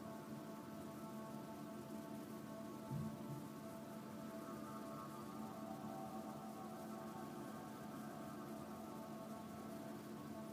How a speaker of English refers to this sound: As you're hearing those waves in your ear, I want you to feel your feet on the sand. warm from the sun under your feet. cool and wet from the water.